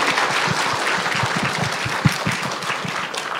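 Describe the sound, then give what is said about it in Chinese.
An audience claps steadily for a few seconds for lecturer Xu Zidong after his talk, a dense wash of many hands with no voices, holding an even loudness throughout. “先给徐老师点掌声吧。”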